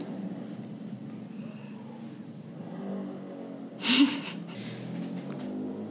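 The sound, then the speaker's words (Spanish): A motorcycle goes by as a steady low engine rumble that swells toward the middle, with a brief airy burst at its peak before the drone settles again. No one speaks. “Entonces, este, dejen que pase la moto.”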